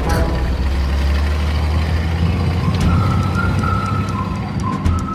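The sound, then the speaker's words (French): A convoy of about a hundred heavy trucks carrying packed artworks to the Château de Chambord, 160 km away, rumbles steadily with a deep, continuous engine drone, and partway through a thin high squeal of braking rises over the noise and holds to the end. “Ils prennent ensuite la poudre d'escampette, emportée par une centaine de camions, destination Chambord, un château situé à 160 km.”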